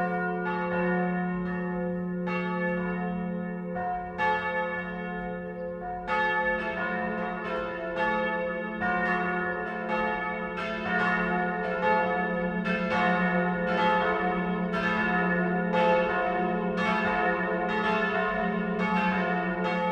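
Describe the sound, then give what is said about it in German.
Church bells of the parish and monastery church Marie Himmelfahrt in Windberg, Lower Bavaria, ring the noon peal at 12 o'clock, several bells overlapping in a steady, continuous clangor with a deep humming tone beneath and bright repeated strikes throughout, no voices. “Das Mittagsläuten kommt heute von der Pfarr- und Klosterkirche Marie Himmelfahrt im niederbayerischen Windberg.”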